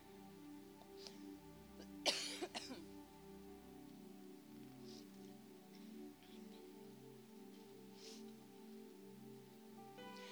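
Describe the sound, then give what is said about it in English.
Many Bible pages rustle and flip as an audience turns to Jeremiah 6:16. One louder burst of crackling comes early on, with scattered softer rustles afterward over a steady, low background hum. “I hear your beautiful pages turning.”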